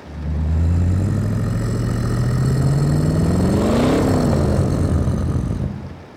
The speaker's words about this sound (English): The sound was half mechanical, half unholy. A deep growl punctuated the engine's revving.